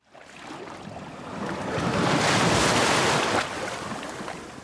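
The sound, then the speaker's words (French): A sea wave rolls in and breaks on the shore, its broad hiss swelling to a loud crest midway before easing back into a steady wash of surf. Nobody speaks. “T'as sauté dans le premier train et t'es parti direction la mer.”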